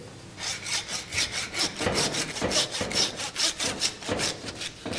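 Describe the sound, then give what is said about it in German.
Steady back-and-forth strokes of a hand saw cutting through pork ribs, a rapid rasping rhythm of about three strokes per second, moderately loud, with no talking, as butcher trainees in cut-protection gloves saw the ribs apart. “Jetzt kriegen Sie beide von mir eine Säge. Sie dürfen jetzt die Rippen auf dieser Höhe in etwa durchsägen.”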